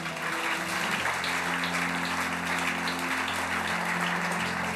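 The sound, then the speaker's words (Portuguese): A crowd applauds Jesus steadily and fairly loudly, a dense wash of clapping lasting the whole stretch, with sustained keyboard chords droning softly underneath. “Você crê nisso? Aplaude a Jesus.”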